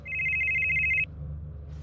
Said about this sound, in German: Damals hat das Telefon seines Chefs geklingelt.